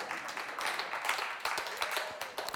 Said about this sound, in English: You can clap if you want.